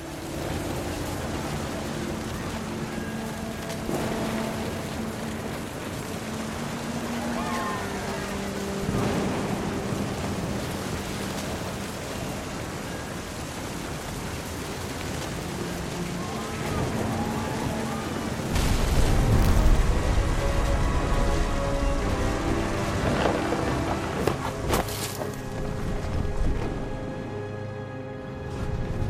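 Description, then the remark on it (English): Heavy rain pours and hisses throughout while deep thunder rumbles close by, swelling into a heavy, booming roll partway through, with faint sustained musical tones beneath. “The thunder sounded much too close and full of angry power.”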